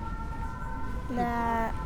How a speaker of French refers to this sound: la, sirène des pompiers.